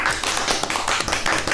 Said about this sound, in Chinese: 先听见了我的掌声哈。